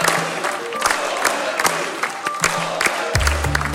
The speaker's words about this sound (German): Der Jubel war groß bei der Mehrheit der Abgeordneten im polnischen Parlament. Mehr als zwei Monate nach der Wahl hat das fünftgrößte Land der EU einen neuen Ministerpräsidenten, den langjährigen Oppositionsführer Donald Tusk.